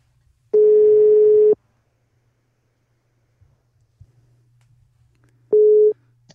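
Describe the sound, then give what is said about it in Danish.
A telephone ringback tone while a call is placed to a singer-songwriter: a loud, steady one-second beep, a long pause of silence, then a second beep cut short. No one speaks. “Det øh, tænker jeg bare, skal vi ikke bare øh, ringe op til hende og se, om hun tager telefonen og høre, hvad det er for noget musik, hun vil høre her juleaften.”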